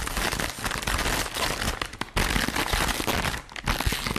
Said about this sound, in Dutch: Ja, het openmaken van een zak chips. Ik denk dat iedereen dit wel herkent.